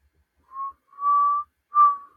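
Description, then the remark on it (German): A person whistles a song melody: three clear, sustained notes near the same pitch, each separated by brief pauses, moderately loud with no talking. “Ja, ich pfeife.”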